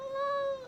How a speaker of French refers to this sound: excuse-moi, Liv, c'est mon chat, Pistache.